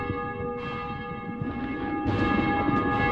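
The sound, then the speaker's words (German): A church bell rings steadily for vespers, its sustained metallic tones humming and overlapping in a continuous resonant peal, moderately loud with no voices present. “Vesperglocke läutet.”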